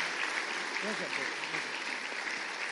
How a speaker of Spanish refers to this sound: Yo quería recibirle ya mi pastor y también un padre espiritual, por favor, con un aplauso a mi querido pastor